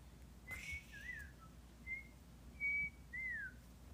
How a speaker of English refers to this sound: Does that sound okay? Woo-hoo. Yep. Okay, amazing. I feel like my whistling is not loud enough. I can't even whistle.